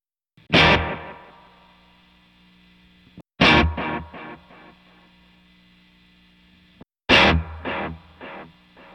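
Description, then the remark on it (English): Three bursts of a strummed, distorted guitar chord through a multi-head tape echo, switching from head one to head two to head three. Each burst is followed by decaying echo repeats whose spacing widens from one burst to the next, with a steady low hum underneath. “So I'll go one, two, and three so you can hear the difference.”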